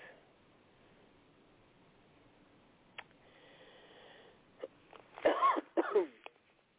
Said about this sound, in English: excuse me for coughing.